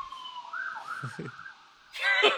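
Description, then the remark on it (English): A fire truck siren wails in a steady, rising sweep, with a few low thuds underneath, then a loud, harsh blast of the truck's horn cuts in at the end. “it's a fire truck.”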